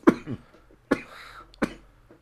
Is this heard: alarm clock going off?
no